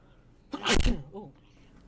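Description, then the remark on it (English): A single loud, sudden sneeze bursts out, sharp and explosive, followed by a brief trailing vocal sound as it fades back into near quiet. “yeah, uh, sneezes catch me they they blindside the fuck out of me, by the way, and it sucks.”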